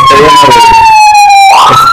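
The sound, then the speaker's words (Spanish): A loud emergency vehicle siren wails, its steady tone slowly sliding downward before jumping back up as it passes, with no talking over it. “sí, aquí siempre pasan las sirenas a cada rato.”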